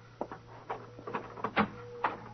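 A door handle is rattled and jiggled, producing a quick, uneven series of metallic clicks and knocks over a low steady hum, with no one talking.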